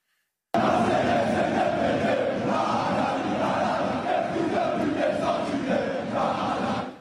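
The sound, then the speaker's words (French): A huge crowd of Paris Saint-Germain football supporters chants hateful, homophobic songs in unison from the stadium stands during the Classico on a Sunday evening, a dense, loud roar of many voices starting abruptly and continuing steadily with rhythmic swells throughout. “Ces chants haineux et homophobes ont été entonnés dans les tribunes du PSG dimanche soir lors du fameux Classico.”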